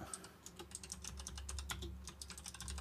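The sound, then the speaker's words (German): Rapid keystrokes clatter on a computer keyboard as someone quickly writes down a topic to remember, a steady, fast stream of clicks with a low hum underneath and no talking. “Wird jetzt klickern, aber das Thema muss ich mir jetzt mal ganz kurz aufschreiben, sonst vergesse ich das nach dem Podcast, ja?”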